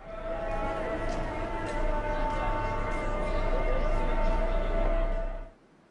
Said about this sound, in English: So here's a recording of a market in Morocco.